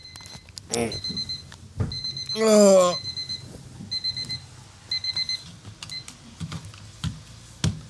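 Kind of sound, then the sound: household object, alarm clock ringing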